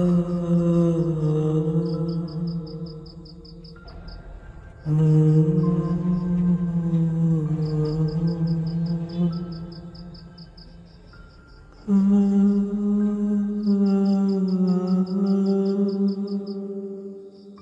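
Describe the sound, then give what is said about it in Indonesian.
Eerie, ghostly humming in three long, low, wavering phrases with brief pauses between, while a steady rhythmic cricket-like chirping pulses faintly in the background throughout. “Suara senandung yang aku dengar kira-kira seperti itu.”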